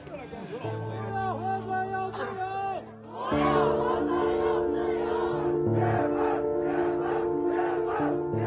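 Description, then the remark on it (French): An angry crowd of young Chinese protesters shouts slogans against the zero-Covid strategy and the Communist government in late November 2022, voices rising and falling in rough unison, over a steady sustained tonal drone that swells louder partway through. “des cris de colère d'une jeunesse chinoise à bout de nerfs.”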